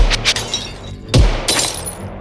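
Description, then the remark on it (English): Loud gunshots crack out in quick succession as two agents fire and glass shatters, with a heavy booming blast midway followed by a bright spray of breaking glass that tinkles down. No voices. “The two remaining agents fire.”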